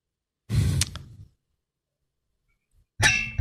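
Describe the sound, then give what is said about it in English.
A rough scratching against a microphone pop filter, two short muffled bursts of rubbing noise separated by a few seconds of silence, with no talking. “Just, that was just an angry scratch on my pop filter.”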